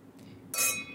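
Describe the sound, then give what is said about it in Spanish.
A single bright clink of glasses touching in a toast, with a clear ringing tone that lingers briefly before fading. “Bueno, salud. Salud.”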